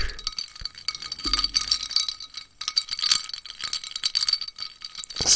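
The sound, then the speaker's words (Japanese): Ice cubes rattle and clink against the sides of a glass holding a spirit mixed with tonic water as it is swirled, a steady run of bright, high-pitched tinkles with no talking. “涼しげな音ですね。”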